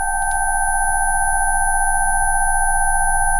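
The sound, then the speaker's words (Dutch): A steady, unbroken sine-wave tone from a 15-minute 'Deafness Treatment Frequencies' video claiming that listening can improve hearing holds at a constant pitch throughout, with fainter higher tones and a low rumbling hum underneath, and no voices present. “Het is een ehm, een deafness Treatment Frequencies. Dus het, is een filmpje dat beweert, als je naar dit luistert, dat je je gehoor kan verbeteren.”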